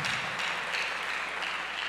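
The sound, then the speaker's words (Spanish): A church audience claps for the Lord after a sermon, a steady, dense wash of applause that holds at an even level throughout, with no voices standing out above it. “Yo quiero que le demos un fuerte aplauso al Señor por esta enseñanza por esta enseñanza.”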